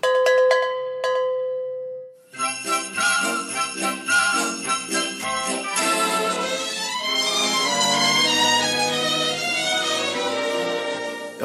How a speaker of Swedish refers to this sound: den lilla speciella eh, jingel-trudelutten som ni hörde är eh, beror det på att nu är det, är det lite av ett julspecial på gång här